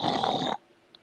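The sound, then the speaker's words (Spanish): A person imitates the snoring of someone with sleep apnea with a single loud, rough, rasping snort lasting about half a second, then abrupt quiet with only a faint click afterward. “la gente se asusta, se asusta porque miren, hagan de cuenta que el ronquido es...”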